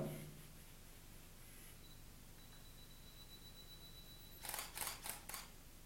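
A DSLR camera shutter fires three times in quick succession during automatic exposure bracketing (AEB), taking three photos at different shutter speeds with the same ISO and aperture; crisp mechanical clacks, following several seconds of quiet hiss with no talking.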